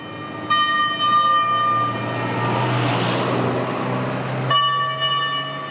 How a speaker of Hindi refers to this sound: miss Martha ने रोटियों की तरफ हाथ बढ़ाया ही था कि बहुत जोर से आवाज करता हुआ आग बुझाने वाला इंजन गली में से गुजरा